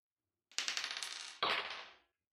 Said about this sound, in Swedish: Och om ni har en specialisering som till exempel lyssna så kan ni få slå två tärningar och räkna ihop båda.